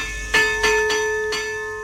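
The old bell of the Baltasara rings out in four quick, uneven strokes, each bright clang leaving a long shimmering metallic hum that lingers and overlaps, clear with no voices.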